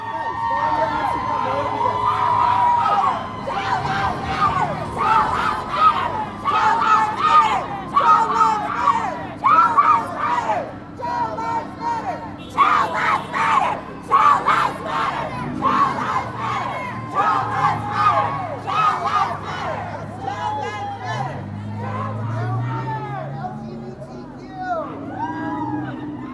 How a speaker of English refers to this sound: The crowd launched into spontaneous chants like, Child Lives Matter.